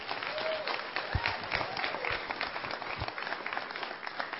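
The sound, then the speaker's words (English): A crowd of people claps steadily, a dense, continuous wash of applause at moderate volume with no one speaking over it. “Give her a hand, please.”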